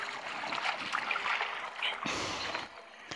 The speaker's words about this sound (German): Ich schwimme mal durchs Wasser durch.